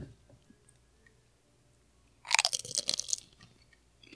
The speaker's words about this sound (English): It's not as loud as I thought it was going to be. Well, Yeah, I don't know if you maximized your crunch though. It looked like you really you really got that thing back there. You're, yeah, like little, you're really going deep on that chip.